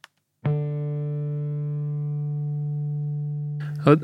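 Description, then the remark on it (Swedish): A single bass guitar note, a D played at the twelfth fret of the D string, rings out clearly and sustains for about three seconds with a slow, even decay before it's cut off. “Eh, eh tolfte band på D-strängen. Mm. Mm. Ett D, om jag inte sa det.”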